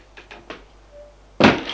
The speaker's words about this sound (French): On frappe à la porte.